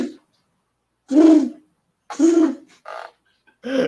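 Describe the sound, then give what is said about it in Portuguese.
A person mimics a pigeon cooing, producing four low, throaty coos in an uneven rhythm, fairly loud, with short pauses between them. “Aí, Aí, não, eu quero que você imite o pombo, é muito bom isso.”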